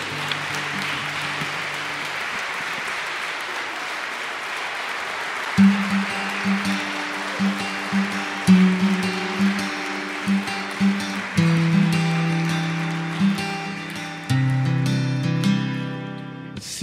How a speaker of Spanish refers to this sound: Por eso un aplauso para ella que está llegando ahí. Venga.